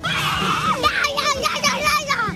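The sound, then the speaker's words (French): A group of children shout loudly together, their high voices overlapping in a sustained, excited clamor that rises and swells in bursts for a couple of seconds, energetic. They shout louder to make a light-up tree grow, a game at Parc Blandan. “Il fallait euh, crier euh, plus fort pour que l'arbre il grandisse de lumière.”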